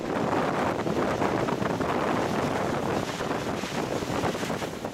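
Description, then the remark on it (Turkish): Loud, continuous roaring wind of a whirlwind that formed during a forest fire in Serik, Antalya, Turkey, buffets the microphone, a dense, turbulent rush with no pauses and no voices. “Antalya'nın Serik ilçesinde ise orman yangını sırasında hortum oluştu.”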